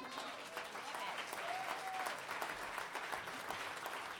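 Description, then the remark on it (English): An audience claps steadily throughout, a dense, even wash of many hands with no pauses, with a few faint whistle-like tones rising briefly above the applause. “It's worth some clapping for sure.”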